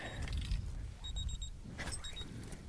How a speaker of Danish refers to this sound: Det er stopuret, der ringer.